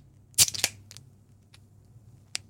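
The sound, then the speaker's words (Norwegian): A drink can cracks open with a sharp metallic pop and a quick burst of fizzing hiss, followed by a few faint clicks. “Du, du skal bare gjette, du. Gjett du nå. Om det er brus eller øl?”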